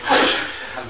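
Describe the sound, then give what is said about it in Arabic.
A single sharp sneeze bursts out loudly, its breathy rush trailing off quickly with no talking over it. “يرحمك الله”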